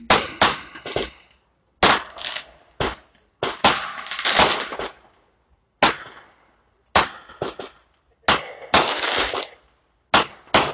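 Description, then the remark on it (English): Fireworks explode outside in an irregular, rapid string of loud sharp bangs, some clustered close together, each ending in a brief crackling tail, with short quiet gaps between bursts and no voices. “sorry, there's like literally okay, there's like literally fireworks, so I can't even freaking speak.”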